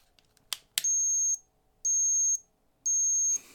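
An ultrasonic cat repellent device, its lights turning red, gives off three loud, shrill electronic beeps, each about half a second long and evenly spaced. A couple of sharp clicks come just before, with no talking.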